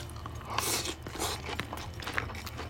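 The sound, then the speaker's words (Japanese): Chewing of cup ramen noodles with plenty of wakame seaweed, with wet, crunchy bites repeating unevenly over a few seconds. The mouth sounds are loud, and no one speaks. “ペットのもぐもぐタイムねうんどんだけ音拾ってんのかわかんないけどね”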